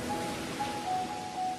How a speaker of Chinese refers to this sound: 听，那是大海的声音。